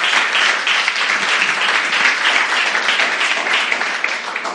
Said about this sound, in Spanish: Si usted cree que es libre, dé un aplauso a Dios y dígale gracias, Señor.